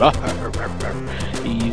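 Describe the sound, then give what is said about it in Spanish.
A person imitates a dog barking, letting out a quick series of loud, voiced woofs in rapid succession. “que dice que le saluda a su perro, pues los lo saludamos también”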